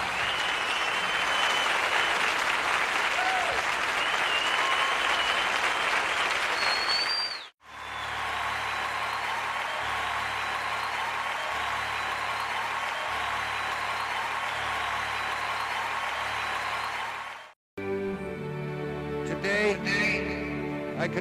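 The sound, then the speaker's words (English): Sustained audience applause for a man taking a bow, a dense wash of clapping that continues loudly with brief breaks before fading into a different sound at the end. “Let him hear it, everybody. Take a bow”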